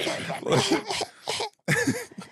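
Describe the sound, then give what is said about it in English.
A voice imitates the Baron coughing while floating in the corner of a room, with a quick string of five or six harsh, raspy cough bursts, a brief pause near the end, then one more. Fairly loud. “we see the Baron floating in the corner of the room, coughing and floating.”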